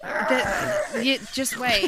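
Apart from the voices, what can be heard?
dog barking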